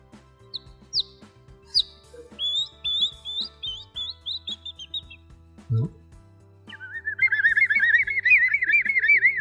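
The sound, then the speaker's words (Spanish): A person whistles a run of high, bird-like chirps and warbles that sound distant and airy, pausing briefly before breaking into a louder, fluttering trill that continues to the end. “Yo, tengo una forma de silbar que, parece que sonará lejos, ¿no?”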